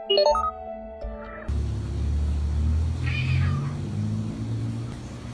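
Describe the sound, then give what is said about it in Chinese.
One of two house cats at a door at midnight gives a short, high, wavering meow, then a steady low rumble takes over with a fainter, thin cry rising and falling partway through. Nobody speaks. “就是他家养了两只猫，就是一到半夜的时候啊，两个猫都到他的那个门前面去扒那个门，好像门对面有什么东西似的。”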